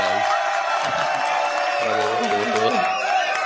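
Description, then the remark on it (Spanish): A crowd applauds and cheers steadily for a few seconds in recognition of civil engineers and architects, dense clapping mixed with shouting voices, loud throughout. “Un aplauso, claro. ¡Bravo!”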